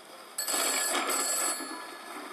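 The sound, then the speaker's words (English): An old-fashioned telephone bell rings in one loud, rattling metallic burst lasting about a second, then trails off into a lingering fade. No voices are heard. “What is that old fashioned gadget over there? I think it's a phone.”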